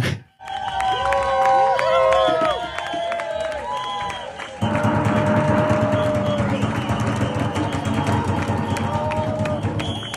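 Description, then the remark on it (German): A large crowd cheers loudly and continuously outdoors across the street from city hall, a dense roar of many voices with rising whoops and shouts, growing fuller partway through and never letting up. “Das hört sich ja fast so an, wie wenn Eintracht Frankfurt gewonnen hat, oder?”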